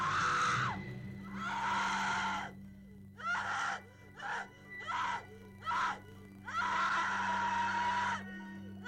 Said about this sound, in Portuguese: esse é o único grito, né? É só o menino que grita. As pessoas, os outros moradores do prédio, eles se incomodam com esse grito